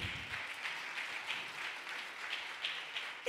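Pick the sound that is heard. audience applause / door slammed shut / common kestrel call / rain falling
audience applause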